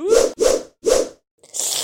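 A chameleon's tongue shooting out and snapping back, heard as three quick, wet, stretchy bursts in a row and then a short hissing whoosh, fairly loud with no talking.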